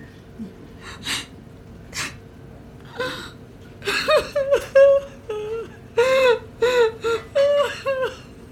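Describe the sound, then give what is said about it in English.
Fairly loud crying: a few sharp breathy gasps, then a run of wavering, whimpering sobs in uneven bursts, with no words spoken. “Because you're kind of crying.”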